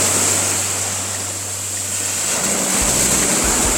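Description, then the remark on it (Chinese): Steady, loud wash of sea waves breaking on the shore at Wuzhizhou Island, Hainan, China, a broad hiss of surf with a low rumbling undertone that shifts partway through; no voices. “这个浪花拍打。海岸的声音，我现在所在的位置就是蜈支洲岛”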